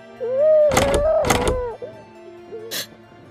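Two heavy thumps against a locked bedroom door about half a second apart as it is forced, followed a moment later by a brief sharp rattle, with a faint wavering whimper-like tone running underneath.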